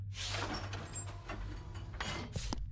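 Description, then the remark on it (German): A door slides open with a loud pneumatic hiss over a steady low mechanical rumble, with a faint high whine and a second burst of hissing near the end. “Traudel, Tür öffnen.”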